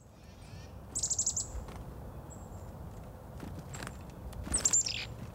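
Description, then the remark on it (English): A chickadee's scolding winter call: two quick bursts of high, buzzy chattering notes, a few seconds apart, over a low steady outdoor rumble with no voices. “The scolding winter call of the chickadee, wind howling through oaks or whispering through pines, the clarion call of wind chimes, piercing as the cold itself.”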